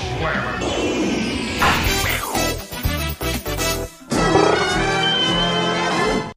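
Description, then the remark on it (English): A loud Transformers-style robot transformation sound effect used as a wrestling news stinger: crashing, clanking mechanical bursts stutter rapidly in the middle, framed by dense, driving music that swells back in full after a brief cut. “I swear the sound effect in the middle of the Transformers thing always sounds like a fire alarm tester going off the bing.”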